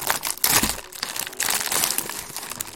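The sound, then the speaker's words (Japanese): Crinkly plastic wrapper rustling and crackling as a packet of Murray River salted caramel biscuits is opened, a steady run of crisp crunches and crackles with a few louder bursts, no talking. “ではまずですね、えー、マレーリはソルティートキャラメルっていう方をですね、えー、開けてみたいと思います。”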